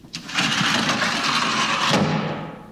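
A metal locker door slams shut with a sharp bang, then a loud, rattling metallic rumble carries on for about two seconds before a second knock and a fade. No one speaks.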